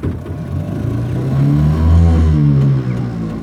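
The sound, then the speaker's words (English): A car engine turns over and catches, its low rumbling hum swelling and revving briefly before settling into a steady idle, with no one speaking. “that's Toby starting the the engine”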